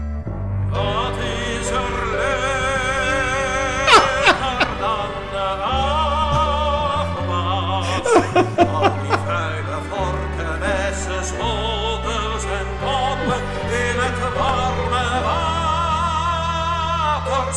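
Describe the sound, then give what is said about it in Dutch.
A sung song about washing the dishes, from Sesamstraat, with wavering, vibrato-rich vocal melody over steady instrumental backing, bright and continuous throughout, with a few sharp percussive accents along the way. “Ik vond ook nog dit onwaarschijnlijke lied over de afwas”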